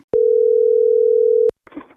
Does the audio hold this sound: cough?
no